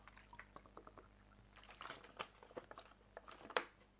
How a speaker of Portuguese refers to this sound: Deixa eu beber um gole d'água, porque eu não bebi antes.